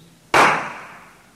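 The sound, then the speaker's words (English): A person claps their hands once as a demonstration: a single sharp clap, a loud crisp smack that starts abruptly and then fades away over about a second, heard alone with no talking. “And yet, how quickly we say, oh, he's clapping his hands.”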